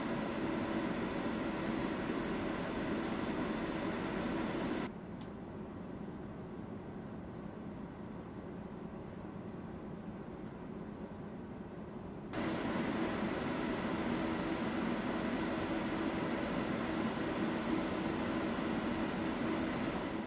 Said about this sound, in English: Let's move on to some acoustic tests for this cooler. Do note that the fan noise was recorded just a few inches away from the case, so the tests might sound a lot noisier than they really should.